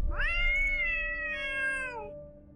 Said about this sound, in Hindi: उन्होंने पास पड़ा एक छोटा सा पत्थर उठाया और बिल्ली की तरफ फेंका पत्थर लगने से बिल्ली की चीख निकल पड़ी